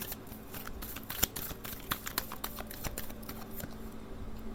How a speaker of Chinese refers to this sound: 继续让我抽牌哦，我们接下来用塔罗牌帮你们看，他对你的想法到底是什么？